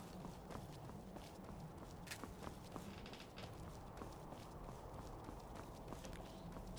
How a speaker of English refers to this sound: somebody walking down the road. Who is that?